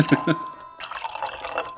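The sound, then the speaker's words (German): Wine pours into a glass in a steady, bright, splashy trickle lasting about a second, after a couple of brief voice-like sounds at the start. “wenn du dieses Glas nicht bis zum Rand füllst, werde ich saurer als der Wein.”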